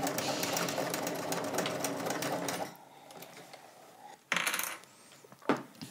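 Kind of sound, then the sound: machine, sewing machine stitching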